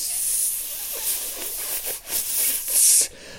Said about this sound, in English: And what we found was that there was a lead pipe. It had um, had a crack in the lead pipe, and it was just pissing out water.